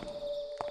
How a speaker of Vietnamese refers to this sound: có tiếng lộc cộc phát ra nghe như là tiếng bước chân người đang bước đi bên ngoài ngõ